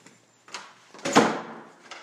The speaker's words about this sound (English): You gotta give me space to open the door. You gotta, you gotta give me space here to open the door. Hold on, you don't have to squeeze through. Just let me open the door. There you go.